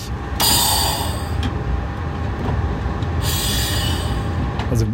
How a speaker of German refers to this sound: wir hören da irgendwie Luft strömen. Was habt ihr da gemacht? Genau, da haben wir einen sogenannten Emergency Descent gemacht.